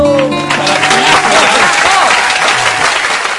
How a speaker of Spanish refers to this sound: Un aplauso, por favor, para mí.